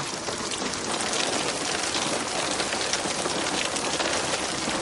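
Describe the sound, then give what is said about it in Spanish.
Steady rain pours down at night in a dense, even hiss, with fine drops pattering on surfaces. It stays constant throughout, with no voices. “De noche, varios soldados caminan bajo la lluvia.”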